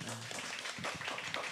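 Several people clap together in a dense, steady patter lasting about a second and a half, fairly soft overall, with a faint voice briefly underneath at the start.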